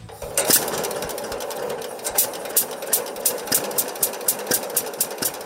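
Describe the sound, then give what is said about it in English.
A 1940 John Deere B two-cylinder tractor engine idles in Wisconsin with a slow, steady putt-putt rhythm, each firing pulse distinct and evenly spaced, with no voices over it. “This is a 1940 John Deere B.”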